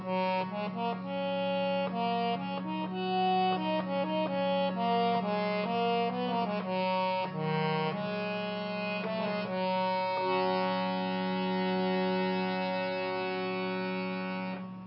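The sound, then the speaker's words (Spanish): A small harmonium with a hand-pumped bellows holds a steady, constant low drone throughout, while shifting notes above it change every second or so. The tone is full, reedy and buzzy, with no voices. “un armonium con estas eh, características, que es un teclado pequeño, un fuelle manual como este y un teclado que con unas teclas genera un aire y produce un sonido. En este caso concreto es una nota constante”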